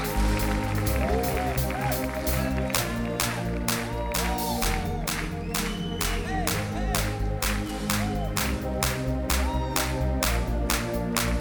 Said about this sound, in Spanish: En ti yo soy libre y quiero oír ese aplauso fuerte en el nombre de Jesús y vamos a saltar arrancando con ….